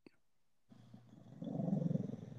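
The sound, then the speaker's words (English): A dog snores and growls in its sleep while dreaming, a low throaty rumble that starts after a short click and swells into a louder, rapidly pulsing grumble. “That's your dog.”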